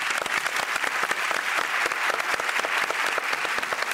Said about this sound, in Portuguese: Aplausos o Vitor Hugo.